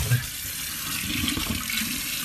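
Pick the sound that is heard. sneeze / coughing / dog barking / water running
water running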